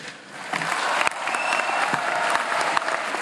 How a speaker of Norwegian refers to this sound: Men vedtaket er altså gjort med akklamasjon, som det heter, altså med applaus.